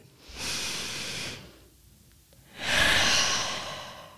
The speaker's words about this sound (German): Und der zweite Atmer ist dafür, dass man tief einatmet und bei diesem Ausatmen seinen Körper entspannt. Das können wir auch mal machen.